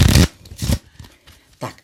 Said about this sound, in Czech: Já ty karty vemu, takhle je lehce zamíchám